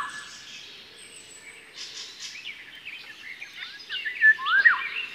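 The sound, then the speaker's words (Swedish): A Eurasian golden oriole's fluting whistled song rises out of a busy background of other birdsong, growing louder and clearer toward the end in a few rich, liquid phrases. “Vi ska lyssna på sommargylling.”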